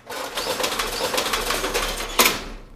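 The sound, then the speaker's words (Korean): A rolling shutter door rattles steadily downward with a dense metallic clatter, ending in a louder clunk as it hits bottom, fairly loud, with no voices. “셔터문 닫는 소리네요.”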